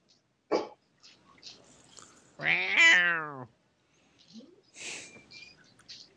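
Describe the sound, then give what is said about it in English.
A cat lets out one drawn-out growling yowl lasting about a second, its pitch sliding steadily downward, framed by a few short, faint rustles and clicks with no talking. “don't, don't you growl at me.”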